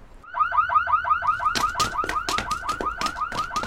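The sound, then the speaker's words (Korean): A car alarm wails in the distance in rapid, repeating chirps that start as a fast warble and shift into sharper whooping blasts. Loud, with no voices. “멀리서 자동차 경보음이 울리기 시작했다.”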